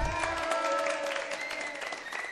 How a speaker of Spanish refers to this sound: Feliz, feliz, feliz que hayas ganado. Fuerte el aplauso para él.